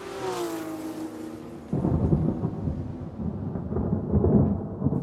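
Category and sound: nature, thunderstorm with thunder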